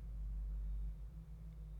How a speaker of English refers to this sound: and that's my neighbor's car. God, all the sounds, all the sounds.